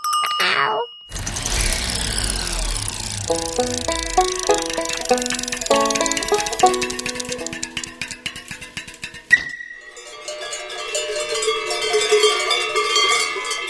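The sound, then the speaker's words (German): Many cowbells clank and jangle irregularly around the necks of about 70 cows grazing grass and flowers on a Swiss alpine meadow at 2000 metres, ringing with each head movement; overlapping metallic tones in a continuous shifting clatter, with brighter tinkling bell sounds toward the end. No one speaks. “Ungefähr 70 Kühe stehen hier und fressen saftiges Gras und natürlich auch die bunten Blumen. Mit jeder Kopfbewegung schlagen die Glocken an,”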